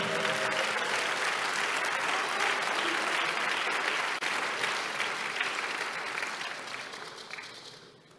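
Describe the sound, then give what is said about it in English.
A church audience claps steadily during a sermon, a dense wash of many hands with no clear individual beats, holding level for most of the time before tapering off and fading near the end. “I'm waiting for you to clap and I'll continue to preach.”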